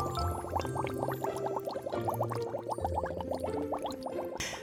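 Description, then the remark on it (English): Continuous bubbling gurgle of someone blowing bubbles through a straw into a thick chocolate malt, with rapid popping bursts in an uneven rhythm, fairly loud, stopping abruptly at the end. “Ideas will be delivered when you blow bubbles in your chocolate malt.”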